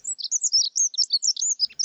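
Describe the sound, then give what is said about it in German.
A rapid, high-pitched bird call of many short chirps and twittering notes in quick succession, fairly loud and continuous with no talking. “Weil kaum jemand weiß, dass dieser unscheinbare und zurückhaltende Vogel, wie es der britische Ornithologe Orton Morris beschrieben hat, ein gar nicht so zurückhaltendes Sexualleben hat.”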